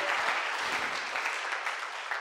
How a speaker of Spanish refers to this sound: Un aplauso, muy bien.